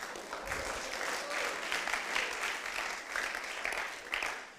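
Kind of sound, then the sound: crowd, audience clapping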